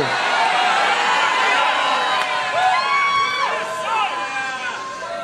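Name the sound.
audience shouting and cheering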